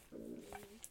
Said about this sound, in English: that was my stomach. If you heard that, I guess I'm kind of hungry.